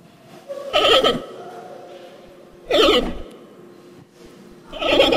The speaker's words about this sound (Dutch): Het is eigenlijk wel opvallend, want dit is een panda.